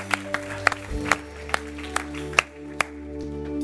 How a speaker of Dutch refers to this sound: Let's give God a hand right now. Laten we God een applaus geven.